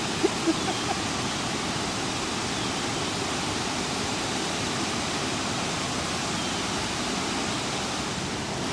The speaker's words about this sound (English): I'm at Kletzsch Park at the waterfall.